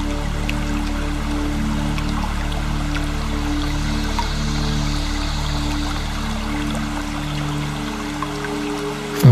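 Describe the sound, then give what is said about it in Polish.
A small stream trickles and splashes steadily from one rock ledge down to the next, a continuous babble of running water with bright little droplet sounds and no voices. “niech ten mały strumień spływa z jednego progu skalnego na drugi.”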